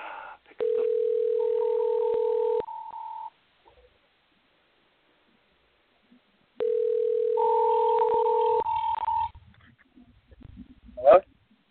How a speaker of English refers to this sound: And now we dial. Listen to the sweet sounds of the dial tone. Come on, brother.